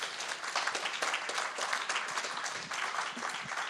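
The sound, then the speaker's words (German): Steady audience applause for the band fills the whole stretch, a dense, even wash of many hands clapping at constant loudness with no voices standing out. “Gebt ihnen doch auch mal einen Applaus.”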